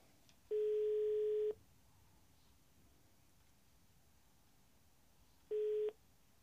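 A steady telephone tone sounds while a phone call is being placed, in two separate pulses, a long one-second beep and, after a gap of several seconds, a shorter one, over faint background hiss with no talking.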